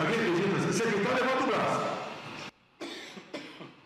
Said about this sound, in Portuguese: Ih, o mano que tossiu ali.